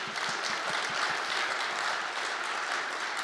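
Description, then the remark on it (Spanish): Steady audience applause, a dense wash of many hands clapping at an even level for a few seconds, with no one speaking over it. “Apláudale, para que no digan que no aplaudimos.”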